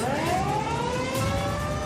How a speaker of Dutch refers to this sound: En dan het geluid van sirenes. Dus dat is een heel duidelijke boodschap, een heel duidelijke dreiging.